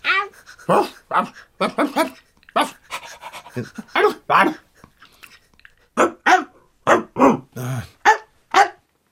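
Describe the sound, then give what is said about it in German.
A dog named Pippin lets out a string of short, yappy barks mixed with whiny whimpers and panting, about a dozen bursts in an uneven rhythm, with a brief lull midway before the yelps resume. “Wollen wir es vielleicht unkompliziert halten und Pippin fragen, wie er zu den Hühnerfedern gekommen ist?”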